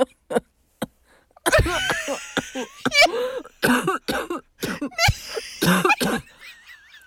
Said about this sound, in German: wow, mein Corona-Husten ist zurück.